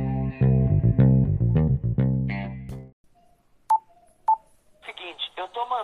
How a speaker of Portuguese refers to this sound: Solta a vinheta aí, meu boy